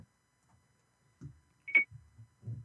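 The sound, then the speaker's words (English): A single short, high electronic beep from a phone, clear but brief, surrounded by a few muffled low thumps and rustles against an otherwise quiet background. “I know you're still on that phone, Alvin. I can hear you beeping and stuff.”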